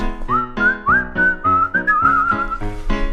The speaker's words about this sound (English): Oh! Looks like our whistling accidentally summoned the Prince of Darkness.